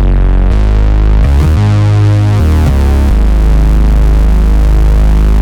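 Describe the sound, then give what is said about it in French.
A loud, buzzy synthesizer plays a few sustained notes alone, its shimmering, slightly wavering tone thickened by a chorus effect, shifting pitch several times before settling into one long held note. “Par exemple, la reverb, le délai, le chorus,”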